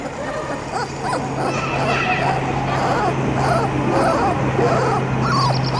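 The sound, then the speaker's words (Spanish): A small dog, a puppy named Draúl, whimpers and yelps almost nonstop, high, whiny cries mixed with short sharp barks, fairly loud over a steady low hum. “Cuando estaba volviendo de su casa, me encontró con un perrito, que era muy cariñoso.”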